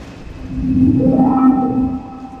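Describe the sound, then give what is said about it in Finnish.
An airplane revs up on the runway and takes off, lifting into the air at about 250 km/h, a low engine drone with a rising whine that swells to a peak midway, then eases slightly. No voices. “Kone nousee kiitoradalta ilmaan ja sen nopeus on nousussa luokkaa 250 km tunnissa, tai vähän sen yli kuten äsken kävi ilmi.”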